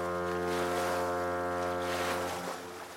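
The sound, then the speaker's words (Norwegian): A boat heading north, its steady engine drone humming beneath a continuous wash of water and wind, loud throughout, easing off slightly near the end. No one speaks. “Og da passer det jo bra å hive oss videre på båten nordover.”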